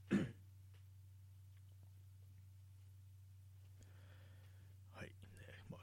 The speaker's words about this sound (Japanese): ちょっとあの、咳払いします。